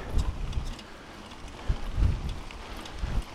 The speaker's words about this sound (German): Und der Wind steigt wieder an. Äh, und der Wind kommt wieder.